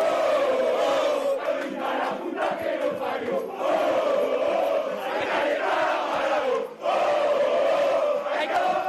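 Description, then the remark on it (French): A large crowd of Diego Maradona's fans, massed outside the Buenos Aires clinic where he is hospitalized, chants and shouts in unison, a loud, sustained roar of many voices rising and falling in rhythmic waves, with one brief dip before it swells again. “Ce que vous venez d'entendre, ce sont les fans de Diego Maradona massés devant la clinique de Buenos Aires où leur idole est hospitalisée depuis lundi.”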